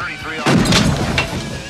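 gunshots

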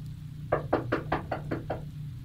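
knocking on a door

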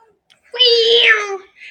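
cat meowing

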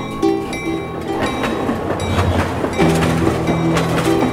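train running on rails

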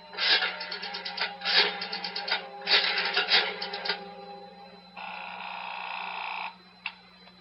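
telephone ringing

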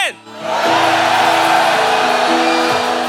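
audience shouting loudly together

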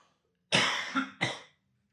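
cough

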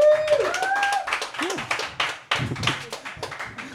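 audience clapping

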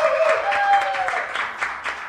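loud audience applause

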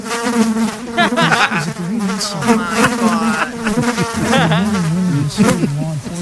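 fly buzzing

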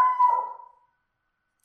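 dog howling

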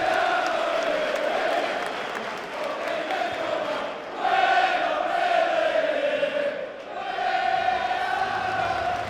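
stadium crowd applauding

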